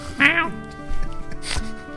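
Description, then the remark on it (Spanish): A person mimics a cat's meow: one drawn-out, nasal, high-pitched cry that bends downward, then a short breathy rush of noise in a quieter moment. “Terrible gato.”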